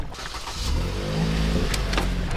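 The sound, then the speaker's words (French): A car engine revs and climbs in pitch as the vehicle makes a U-turn at a gendarmerie border checkpoint on a departmental road, a steady low rumble swelling louder over a couple of seconds with no voices. “Alors voilà, donc vous l'entendez, mm. demi-tour, mais euh, en fait sur cette euh, départementale, la majorité des, contrôles concernent les personnes qui vivent sur la frontière, hein.”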